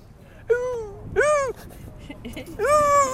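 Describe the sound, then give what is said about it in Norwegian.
A dog whimpers three times, high, drawn-out whines with short pauses between them, clear over a faint background hum. “Kanskje hunden har lyst til å si noe?”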